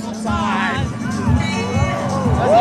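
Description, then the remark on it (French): A large crowd at an election night rally cheers and shouts as Emmanuel Macron wins the 2022 French presidential election on 24 April 2022, overlapping voices and rising whoops forming a loud, steady roar throughout. “je suis dans la foule et c'est officiel, Emmanuel Macron euh, vient de remporter l'élection présidentielle de 2022.”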